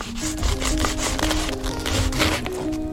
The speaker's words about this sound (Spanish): Que es el sonido de, una baguette. Eh, están cortando una baguette francesa